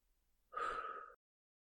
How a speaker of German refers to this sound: Gemeinsam pusten wir unsere Kerzen aus. Bist du bereit? Eins, zwei, drei.